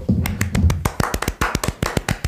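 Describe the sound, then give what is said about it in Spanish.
A small group, a show's production team and staff, claps in brisk, uneven applause for a guest being introduced, with sharp overlapping hand claps coming thick and fast for a couple of seconds and a low murmur underneath at the start. “todo mi equipo de producción ahí aplaudiendo, ¿verdad?”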